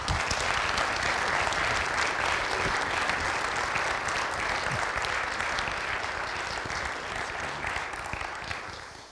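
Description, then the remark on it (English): Sustained audience applause from a sizable crowd in Minnesota welcoming a guest speaker, a dense steady wash of many hands clapping for about nine seconds, tapering slightly toward the end. “let's give him a warm Minnesota welcome.”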